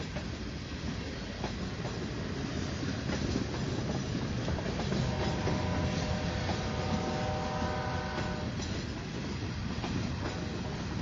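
A train rolls along the railway tracks in Santa Catarina with a loud, steady rumble and clatter of wheels, and a thin tonal whine rises briefly midway through. No one speaks.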